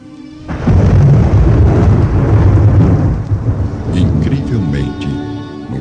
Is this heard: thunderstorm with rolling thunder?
yes